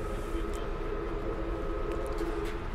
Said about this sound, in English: The train is now coming into Fresno over a whole series of level crossings.